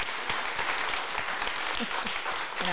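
An audience claps steadily and densely throughout, a bright, even wash of many hands, with a faint voice or two briefly rising through the applause near the end.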